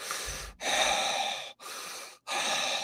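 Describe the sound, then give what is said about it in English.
A voice imitates heavy breathing: four long, raspy, breathy inhales and exhales in a steady rhythm, fairly loud, with short silent gaps between each breath. “it stops right in front of them and they can hear the heavy breathing”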